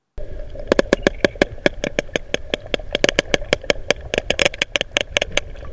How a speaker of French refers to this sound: Oui, c'est très rapide et ce sont deux cachalots, deux séquences qui s'enchaînent deux fois de suite. Écoutez encore.